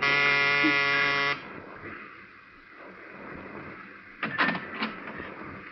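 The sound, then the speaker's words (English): A loud, harsh electric door buzzer of a ground-floor apartment in a narrow gray row house is pushed and sounds in one steady blast lasting just over a second, then cuts off abruptly, leaving quiet and a few faint, brief noises afterward. “I smelled domestic trouble, but I pushed the buzzer anyway.”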